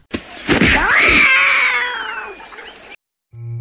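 A cat lets out a long, loud, wavering yowl lasting a few seconds, rising and falling in pitch like a caterwaul, followed by a brief silence and a low electronic tone.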